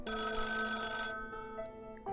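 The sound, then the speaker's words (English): A telephone rings with a bright, metallic bell tone that sustains, then fades before a second ring begins at the very end. It is clear, with no voices. “In July of 1989, Patty began receiving phone calls.”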